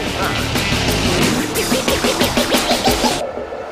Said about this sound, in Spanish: El rugir de los motores llega a juego limpio con la Fórmula 1 y más.